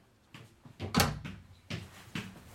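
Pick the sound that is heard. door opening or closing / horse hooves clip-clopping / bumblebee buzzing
door opening or closing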